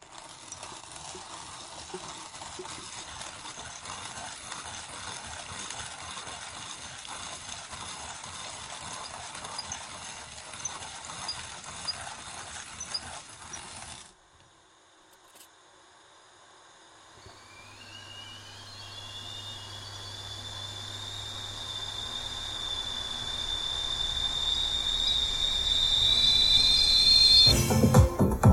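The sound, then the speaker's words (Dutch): A morning street soundscape in De Pijp, Amsterdam, recorded by local residents with Soundtrack City: a steady wash of clattering, clip-clop-like taps for several seconds, a brief hush, then a low hum and a rising, whistling tone that swells louder toward the end. “dus allereerst wil ik heel graag de soundscape ten gehore laten brengen. Die is opgenomen door een paar buurtbewoners in samenwerking met Soundtrack City, waarbij we de ochtend in de pijp zullen waarnemen.”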